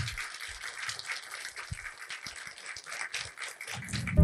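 Steady crackle of a live audience in Wrocław clapping for several seconds, dense and continuous, with a few low thumps underneath and a slight swell at the end.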